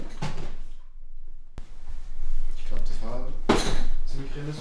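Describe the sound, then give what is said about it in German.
A chair creaks and scrapes, with rough bursts of friction, a sharp knock midway, and a squeaky, drawn-out groan near the end. “Der Stuhl nervt.”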